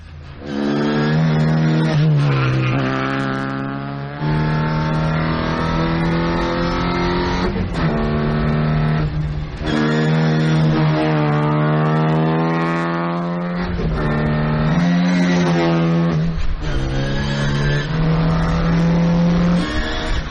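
A competition Mini Cooper S with a BMC A-Series engine revs loudly and continuously, its pitch rising and dropping repeatedly as the throttle is worked, with brief gear-change dips and no talking.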